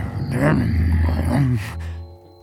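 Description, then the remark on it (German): A low, rumbling vocal hum imitated by a person, swelling and wavering for about two seconds before a brief breathy tail fades out, fairly loud. “Und der Riss Martin brummelt so ein Lied. Und es kutzelt, wo wir auf seinem Bauch liegen. Und alles macht brumm,”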